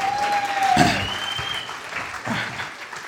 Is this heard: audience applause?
yes